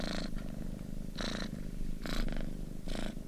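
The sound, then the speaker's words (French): A small creature, Barnabé the boursouflé, snores softly and steadily while asleep in the crook of Norbert's neck, with a low continuous rumble and gentle breathy pulses roughly every second. No talking. “Alors que Norbert reprenait ses esprits, un petit ronflement se fit entendre, attirant son attention.”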